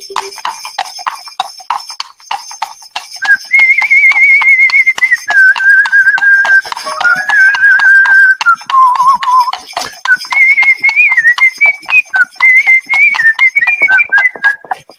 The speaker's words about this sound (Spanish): y qué bonito el caballo, por ejemplo, fíjate, el caballo, pero el caballo, el carruaje, fíjate qué maravilla, tú que eres un hombre de radio.